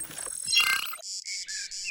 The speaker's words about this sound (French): Ah, je reconnais les cigales, j'imagine qu'on est dans le sud-est. Oui, on n'est pas loin de Marseille.